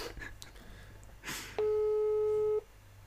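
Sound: phone busy tone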